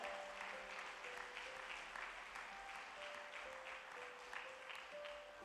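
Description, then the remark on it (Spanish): An audience gives the Lord a big round of applause, a dense wash of many hands clapping at even loudness throughout, with a faint sustained musical tone underneath and no voices. “Yo esperaba que le iban a dar un gran aplauso al Señor.”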